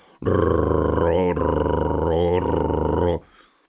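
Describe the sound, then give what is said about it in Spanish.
A voice imitates the deep, growling rumble of an approaching unidentified craft, one loud, sustained drone lasting about three seconds with a couple of brief wavers in pitch. “Cuando aquella cosa empezó a aproximarse, se escuchaba algo así como”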